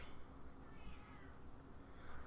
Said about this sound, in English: I don't know if you could hear Daisy in the background. Even she's meowing at it.